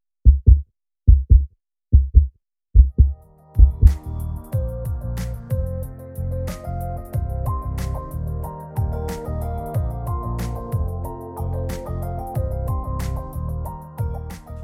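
A heartbeat sound effect of five loud, deep double thumps at a steady pace, followed by an upbeat music jingle with drums that takes over for the rest.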